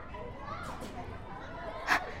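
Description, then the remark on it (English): Many children's voices chatter and call out in a busy outdoor yard, with one brief louder shriek near the end rising above the steady play noise. “This is what I could hear from my cage. There are a lot of children.”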